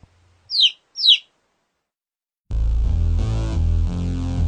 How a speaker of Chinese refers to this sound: 看到小鸟虽然不断的叽叽大叫